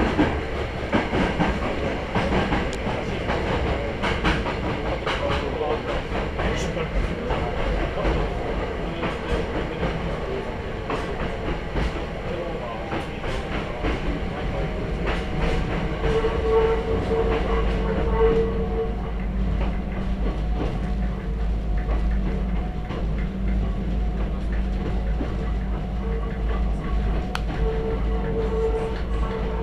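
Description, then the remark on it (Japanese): A mountain railway train rumbles steadily along the tracks as it exits a tunnel toward the Iron Bridge of Dam, a bridge 43 metres high and 70 metres long. There is a deep continuous roar, rhythmic clattering of wheels over rail joints, and occasional faint squeals and hums; no one speaks. “Once the train exits this tunnel, it will cross the Iron Bridge of Dam, one of the highlights of this line.”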